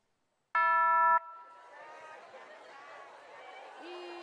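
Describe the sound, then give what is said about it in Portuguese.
A loud, bright electronic doorbell chime rings once near the start, on the TV segment Ding Dong where a song or singer is guessed from sounds, followed by a busy wash of crowd chatter and voices, with a fainter tone rising again at the very end. “Campainha do sucesso aperta, o cara já sai cantando.”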